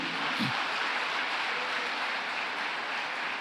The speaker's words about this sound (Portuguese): Pode aplaudir que é para o rei.